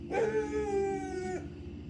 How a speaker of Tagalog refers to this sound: Pagkatapos ay tsaka siya magkakakahol, lalo na paggabi. Minsan nga po, umaalulong pa siya.